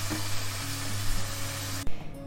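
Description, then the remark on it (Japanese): Pork thigh, about 500 g, sizzles steadily in a frying pan just after being flipped, a dense crackling hiss with low hum underneath, briefly broken by a soft thud near the end before the sizzle continues. “はい今裏返しましたうん、結構大きいですね 500g あるとね食べ応えありそうですね”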